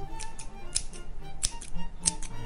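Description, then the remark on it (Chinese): Long, sharp large scissors snip several times in a loose rhythm, cutting a short piece off the top of a small tree, each cut a crisp, bright metallic click over a faint background hum, with no one talking. “她拿起又利又长的大剪刀，哼着歌剪掉一小段树梢。”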